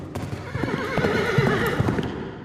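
A horse whinnies with a wavering, high-pitched neigh while hooves clatter in a quick galloping rhythm underneath, steady and fairly loud throughout the short burst.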